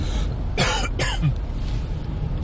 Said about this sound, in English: So usually when I get my Swiss Chalet, still coughing.